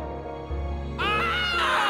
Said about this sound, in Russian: Вместо ее одинокого крика зал оперы наполнили десятки других.